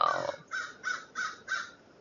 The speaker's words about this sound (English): Oh, hello, Mr. Crow.